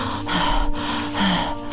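Two heavy, breathy gasps in quick succession, each a loud rush of air, like someone panting and struggling to catch their breath after effort. No one speaks.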